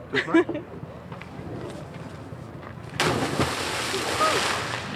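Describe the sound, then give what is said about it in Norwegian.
A sudden loud splash as a man belly-flops into water from a height of three meters, followed by several seconds of churning, hissing water noise. Faint background chatter comes before the impact. “Ja, det var da nærmest et mageplask, men jeg tror ikke han skada seg eh, noe særlig her.”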